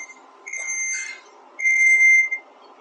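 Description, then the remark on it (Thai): An electronic alarm or siren sounds two long, steady high-pitched tones separated by a short gap, moderately loud, heard in a working studio, with no one talking. “อาจารย์โอเคปะคะแบบเหมือนเหมือนมีเสียงเสียงหวอหรืออะไรหรือเปล่าคะเป็นเอาครับผมผมเอ่อคุยอยู่ในสตูดิโอการทำงานแล้วก็จะเสียงดังทำงานไปอยู่นิดหน่อยค่ะพูดถึงเสียงหวอแล้วก็เออสะดุ้งขึ้นมาบางทีก็มีรถหวอวิ่งเข้ามาเหมือนกัน”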